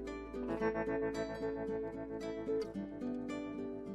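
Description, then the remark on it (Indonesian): Steady instrumental music plays on its own, with a sustained harmonic bed and a regular rhythmic pulse, moderately loud and continuous throughout with no voices. “Oke, okay, backsound sudah mulai terdengar dan saatnya kita akan membahas.”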